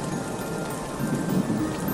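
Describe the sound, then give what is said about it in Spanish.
Heavy rain pours steadily, a dense, continuous hiss of drops hitting surfaces with no pauses. No voices are heard. “Pero un día, mientras miraba por la ventana y en medio de una fuerte lluvia vi a un extraño que estaba en la calle.”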